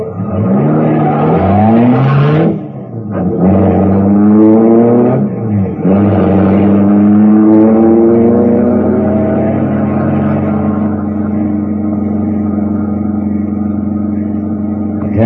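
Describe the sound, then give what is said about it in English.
A car engine roars loudly as a car parked by a cabin in the woods is started and driven off as fast as possible, its pitch climbing through a couple of quick gear shifts before settling into one long rising acceleration. No one speaks. “The motor turned over, and I got out of there as fast as the car could make it.”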